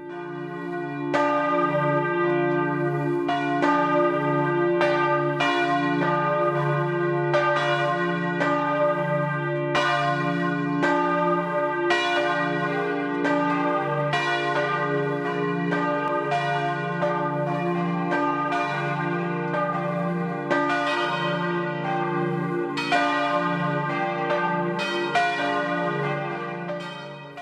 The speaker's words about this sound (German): Es ist 12 Uhr. Das Mittagsläuten kommt heute aus Oberwiesenbach in Schwaben.